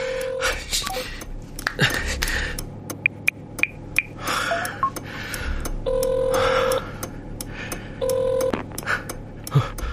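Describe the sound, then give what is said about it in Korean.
A phone call rings out unanswered: scattered keypad beeps and clicks, then two steady ringback tones, each about a second long and separated by a pause, over faint background noise. “아, 왜또 전화를 안 받아?”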